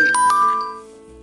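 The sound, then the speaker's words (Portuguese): A mobile phone rings with a bright electronic melody: two quick chiming notes followed by a sustained tone that gradually fades, with no voices. “Gente, vocês me desculpem pelo meu celular tocando, eu vou colocar ele no vibrador.”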